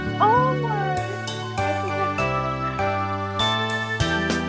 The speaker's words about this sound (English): Now, I don't know if you can hear it because they, the way that this is set up is uh, I've got it going into my personal phone, but I'm playing your happy birthday.